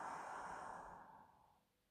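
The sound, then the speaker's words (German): A single long, deep exhale during a guided relaxation exercise, soft and breathy, tapering off gradually over about a second and a half into near silence. Nobody speaks. “Und nochmal tief ein und aus.”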